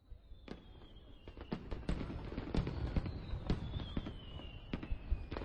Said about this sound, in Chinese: 背后烟花齐放，盛世空前